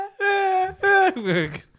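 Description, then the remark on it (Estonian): A voice mimics a baby's cry in three wailing bursts, strained and tonal with rising and falling pitch, loud, with no speech around it. “ja siis on see, et siin ei ole ühtegi beebit lennukis või see ei ole õige elamus”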